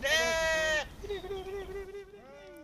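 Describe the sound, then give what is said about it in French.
A sheep from a flock grazing 3 hectares of meadows in the Lyon region lets out a loud bleat lasting under a second, followed by softer, wavering bleats trailing off, with faint outdoor background hum. “Attention donc si vous habitez la région lyonnaise, euh, si vous croisez des moutons sur les passages piétons,”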